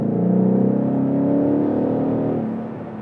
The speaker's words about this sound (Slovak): Krásny zvuk to má. Ten mohutný zvuk 8 válca spo, spojený s tým, ako to duní z výfuku je nádhera. A super je, že sa ti tak rýchlo neminie cesta, že ten zvuk nie je taký krátky ako pri Supre.